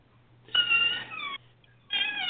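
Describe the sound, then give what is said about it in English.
A door creaks shut in two drawn-out, high-pitched squeals, the first under a second long, the second shorter after a brief pause, fairly loud, over a faint low hum. “but that's a door I'm closing”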